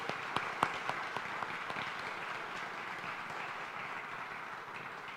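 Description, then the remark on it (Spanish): A crowd bursts into sustained applause for the volunteers who serve every Sunday, a few sharp distinct claps at the start blending into a steady wash of clapping that carries on evenly throughout, with no one speaking. “Yo quisiera, antes de comenzar con el pasaje de hoy, esto es medio extraño, pero que le demos un aplauso a nuestros servidores, a todas las personas que sirven domingo a domingo.”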